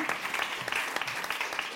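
An audience claps steadily, a dense crackle of many hands with sharp individual claps poking through, sustained and fairly loud throughout with no pause.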